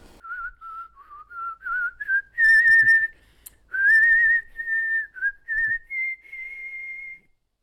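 A man whistles a well-known, flowing melody alone while painting a house among the houses of Mariehamn, clear, with smooth sustained notes, gliding pitch changes and a few brief pauses between phrases.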